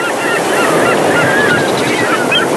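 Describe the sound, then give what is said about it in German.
Seagulls cry repeatedly over a steady wash of surf and wind, their calls overlapping in short bursts throughout, clear against the constant ocean noise. “Das ist noch gut mit den Möwen am Anfang.”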